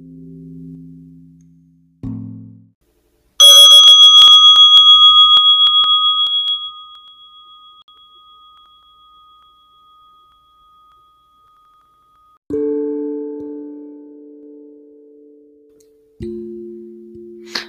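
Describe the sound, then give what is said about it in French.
A small meditation bell, a gong, is struck once, loud, its clear ringing tone slowly fading away over several seconds. Low, steady humming tones come before and after it. “on apprend ou on se rappelle que, en premier lieu, avant de répondre, on respire. Il y a la cloche, cette merveilleuse petite cloche ce gong qui sonne”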